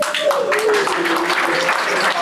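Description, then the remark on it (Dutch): An audience applauds for guest Leo Blokhuis, a dense, loud wash of many hands clapping, with faint voices mixed into the noise throughout. “is Leo Blokhuis uitgenodigd, ook een applaus voor hem.”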